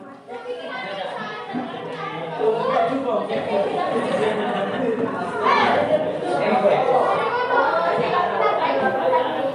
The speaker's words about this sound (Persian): بچه ها خوشحال زبان استراحت با سر صدا مشغول بازی بودند. یه عده دنبال هم میدویدن یه عده کنار دیوار صحبت میکردن بعضی ها مشغول خوردن بودن و یه عده مشغول شیطنت